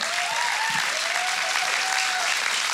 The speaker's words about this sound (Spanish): Oigan, si un aplauso bien fuerte